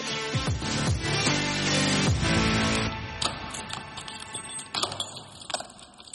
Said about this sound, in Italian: Ed eccole queste chiavi eh, da non sfumare sentire fino all'ultimo.